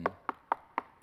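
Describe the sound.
A voice mimics knocking on a house's front door with four evenly spaced, sharp knocks, followed by a faint fifth tap, all within about a second.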